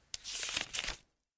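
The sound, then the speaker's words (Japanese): A short rip of paper as a letter is torn open, a sharp onset followed by about a second of bright, crackly tearing that stops abruptly; no voices. “あら、手紙うん。”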